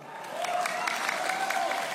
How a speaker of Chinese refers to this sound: 听懂掌声。